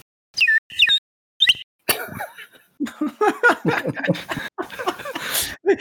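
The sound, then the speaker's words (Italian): Three short, shrill toots from a small wooden whistle topped with a little yellow daisy, each slightly warbling, followed by people bursting into loud laughter. “Io invece ho un fischietto fatto di legno con sopra una margheritina gialla che ho comprato a un evento dell'associazione quando eravamo ospiti a un evento a, al castello di Binadio e che fa così.”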